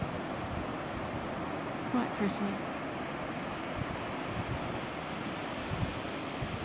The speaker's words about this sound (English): they're flying and soaring and flying down to the water and up again and just playing in the spray above the waterline as waves are breaking.